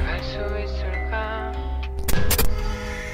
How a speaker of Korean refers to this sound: 찢어지는 것 같은 사람 목소리 같은 게 들리기 시작했어 깜짝 놀라서 급브레이크를 그 밟고 음악을 꺼보려 했지만 꺼지지 않았어 그 목소린 계속 들려오고 있었고